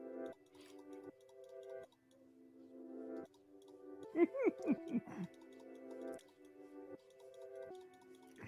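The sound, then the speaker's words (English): Quick, irregular mouse and keyboard clicks tap away at a low level during a team fight in an ARAM game, beneath steady electronic game music, with a short laugh breaking in midway. “Judging by the clicking, it must be a good team fight.”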